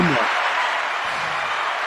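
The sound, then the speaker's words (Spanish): A steady wash of clapping hands fills the whole stretch, dense and even in loudness, with a brief bit of voice at the very start; applause for a third-place score of 201,040 points in an arcade game ranking. “Muy buena puntuación, sí señor. Un aplauso.”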